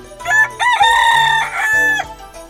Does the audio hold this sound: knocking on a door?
no